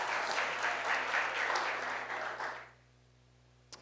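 A crowd applauds for the mothers, a dense, steady wash of many hands clapping for about two and a half seconds before it dies away, leaving a low hum and one faint click.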